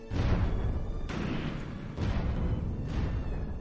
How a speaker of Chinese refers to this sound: 炮声从远处传来。